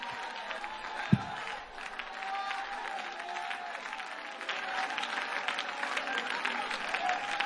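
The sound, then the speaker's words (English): An audience in a church claps hands in a steady, dense wash of applause, with a faint murmur of voices and one sharp thump near the start; the clapping grows slightly louder toward the end. “You ought to clap your hands.”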